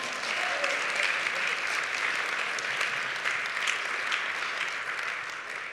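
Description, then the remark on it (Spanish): Steady applause from a crowd, given to the Lord: a dense wash of many hands clapping at a fairly even loudness throughout, with no voices standing out above it. “Si lo quiere dar un aplauso al Señor.”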